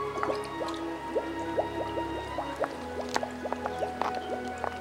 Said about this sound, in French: la princesse s'approche du lac, y plonge son doigt et goûte ce fameux liquide jaune crème. Hmm, mais, mais c'est de la crème anglaise